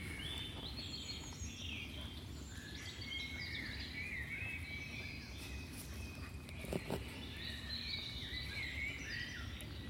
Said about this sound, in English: Sounds beautiful, doesn't it? Yeah, beautiful. Hang on. The bird song, the bird song.